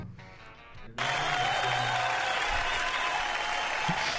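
After a quiet first second, loud applause for the team's floor manager bursts in all at once: dense, steady clapping that keeps an even intensity for about three seconds until the end.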